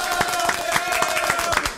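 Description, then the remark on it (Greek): Hands clap in a steady, fairly quick rhythm, a small group at an event in Pylaia applauding the evening's named housewife of the night, with no one talking over them. “Παρακαλώ πάρα πολύ να χειροκροτηθεί”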